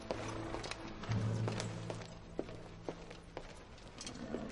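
Steady footsteps of Duke Valentino walking across a castle courtyard toward a group of churchmen, sharp individual steps at an even pace, moderately loud over a low droning hum, with no one speaking.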